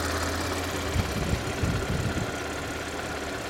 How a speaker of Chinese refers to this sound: 那 V6 TFSI，然后这个发动机的声音也非常好听啊，然后发动机舱，嗯，整个的布局也是不错的，听起来发动机的声音很清新啊，没什么问题。